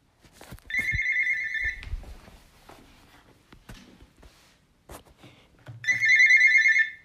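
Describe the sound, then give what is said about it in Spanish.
A telephone rings in two loud electronic bursts several seconds apart, a bright warbling tone, with soft footsteps and light tapping in the quieter gap between rings. “Espero un poco que voy a contestar el teléfono.”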